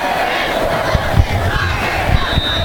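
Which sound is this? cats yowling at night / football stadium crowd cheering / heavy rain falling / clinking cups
football stadium crowd cheering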